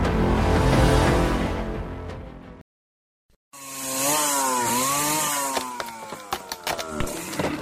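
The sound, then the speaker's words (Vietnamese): A chainsaw roars loudly while felling trees, cuts out for a moment, then restarts with a whining engine note that rises and dips as it revs, punctuated by sharp cracks of wood. “Những cánh rừng bị bốn hạ”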